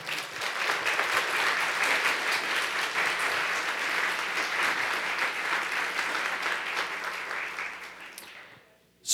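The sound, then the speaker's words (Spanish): An audience at a Spanish-language church service applauds loudly and steadily for about eight seconds as applause for the Lord, a dense wash of many hands clapping together, then the clapping fades out abruptly near the end. “Dele fuerte ese aplauso al Señor.”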